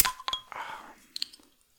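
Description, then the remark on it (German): A bottle of Spezi soft drink being opened: a few sharp clicks and a brief cap crack, then a short gassy hiss, followed by light clinks and taps before it goes quiet. “Nebenbei mache ich mir mal eine Spezie auf.”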